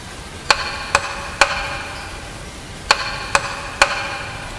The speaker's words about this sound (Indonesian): Keduanya berjalan mencari dari mana asal bunyi ketukan itu. Tiba-tiba, suara itu terdengar lagi.